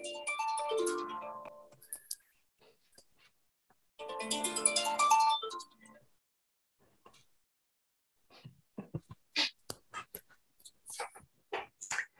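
A bright, warbling electronic alarm tone rings in two bursts of about a second and a half each, separated by a pause, followed by soft clicks and faint rustling.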